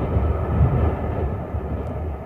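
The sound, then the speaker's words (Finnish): A train carrying 30 prisoners rumbles as it starts to move after a standstill, around five in the afternoon, in April 1918 in Finland's civil war, a heavy low-pitched mechanical drone that stays steady and fairly loud throughout, with no voices. “Seisokin jälkeen juna kähti liikkeelle viiden maissa iltapäivällä.”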